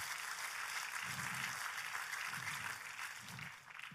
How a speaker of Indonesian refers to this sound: Oh, tepuk tangannya lebih dahsyat lagi sih.